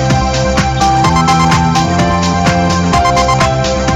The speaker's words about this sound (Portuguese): Olha, olha, olha, pessoal. Tem uma, uma pessoa do DDD 11 ligando no telefone normal. Você não vai ser atendida, porque eu não posso atender do telefone normal e do WhatsApp.